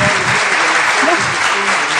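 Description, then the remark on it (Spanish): Steady applause sound effect played by the host on the radio show Cocinando con la Voz, a dense crackle of many hands clapping at a constant loudness for about two seconds, with a faint voice murmuring underneath. “No, yo puse mucho aplauso y no escuché el comentario.”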